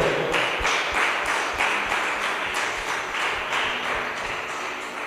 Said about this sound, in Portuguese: Aplauda Ele.